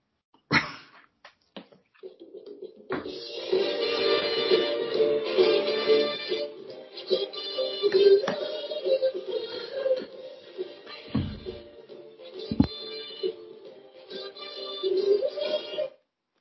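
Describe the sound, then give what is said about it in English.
A recording of a 1968 soul song plays for about thirteen seconds after a few sharp clicks, a steady, full-band mix with a warm midrange and occasional loud hits, then stops abruptly. “Yeah, I can cool. play a clap of it if you want.”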